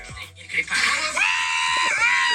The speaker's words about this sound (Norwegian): Fy faen, for et bra gledesrop.